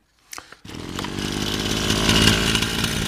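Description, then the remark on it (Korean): A brush cutter's small engine sputters briefly, then roars into a steady, loud buzzing whine that holds and slightly rises in intensity, with no talking, as family members cut the grass at ancestral graves on a mountain. “그렇게 한참 각자 위치에서 예초기를 돌리고 있을 때였습니다.”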